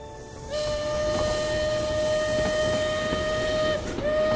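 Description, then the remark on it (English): A steam train's whistle sounds a long, steady, shrill note for about three seconds, cuts off briefly, then starts again, over a constant chugging rumble and hiss. No one speaks. “Thank you for bringing me to the train, Father.”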